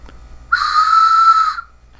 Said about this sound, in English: This is a train whistle